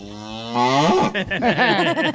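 A cow moos loudly, one long drawn-out call that rises and then wavers through several throaty pulses before trailing off. No one is talking.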